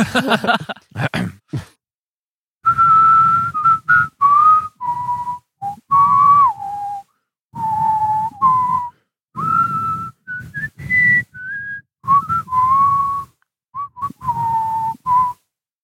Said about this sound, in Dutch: Is dat we onze gasten uitfluiten met hun favoriete nummer